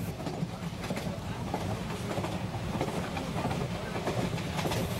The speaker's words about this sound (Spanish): Bueno, ese es el tren de medianoche dándome la señal de que debo acabar con esta transmisión.